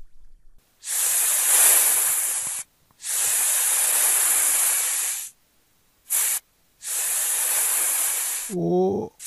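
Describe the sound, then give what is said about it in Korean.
Snakes hiss in a series of long, loud, breathy bursts separated by short pauses, with one quick hiss in between, and a brief vocal cry cuts in at the very end. “오 뱀이다 뱀이야!”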